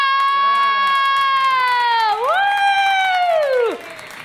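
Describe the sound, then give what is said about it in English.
A crowd cheers and claps as a Golden Hammer winner is announced, with one loud, sustained whooping cry that holds steady, dips, then rises again before cutting off, over a dense wash of audience noise. “Okay, please put your hands together for”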